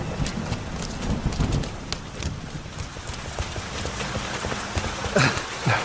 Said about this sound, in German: Gute Idee. Bei diesem Unwetter.